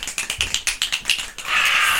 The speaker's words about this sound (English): Okay, we need a round of applause. Or snaps. Let's do some snaps.